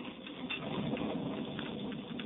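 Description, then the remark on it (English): Heavy rain pours down at a ranch house in a steady, dense hiss with a fine pattering texture, continuous and even throughout, with no voices. “It is raining heavily as Judd and Alva Briggs from a neighboring ranch finish their dinner.”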